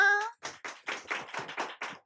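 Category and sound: crowd, applause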